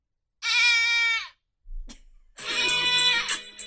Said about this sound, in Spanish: Es una cabra. Espérate, dale otra vez, otra vez. Espérate, la cabra ahí. Ahí va otra vez.